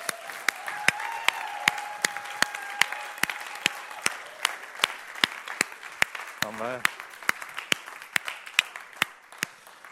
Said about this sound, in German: Und ich glaube, es gibt jemanden, der sich noch mehr freut, dass du hier bist. Das ist Jesus, weil der ist nämlich auch hier. Ja. Und wollen wir dem nochmal einen riesen Applaus geben. Ja.